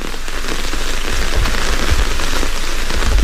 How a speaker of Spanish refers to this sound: Andan con cuidado por la segunda avenida de Nueva York, porque llueve y porque van cargados con un paraguas y un capazo repleto de productos de limpieza.